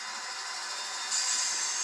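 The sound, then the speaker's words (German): A steady high-pitched whirring hum of a spinning saw blade in a video game, continuous and fairly loud, swelling slightly brighter midway through, with no talking. “Oder ich werde tatsächlich zersägt von diesem Sägeblatt.”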